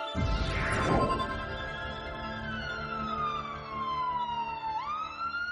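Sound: ambulance siren passing by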